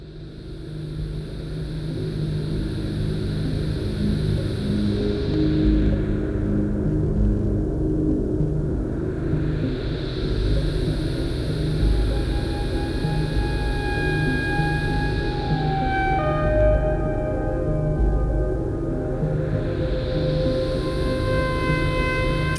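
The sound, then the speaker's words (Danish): A loud analog synthesizer improvisation: a dense, rumbling sci-fi drone with slow sweeping swells that rise and fall about every ten seconds, and thin rising tones emerging near the end. No voices. “Den her improvisation, det har været en science fiction film helt fra starten.”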